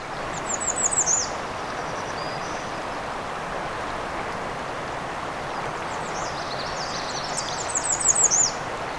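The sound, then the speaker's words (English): Two short bursts of high, tinkling calls from a bobolink flying overhead, one near the start and one near the end, faint against a steady rushing background of wind or water, with no voices. “another bobolink going overhead.”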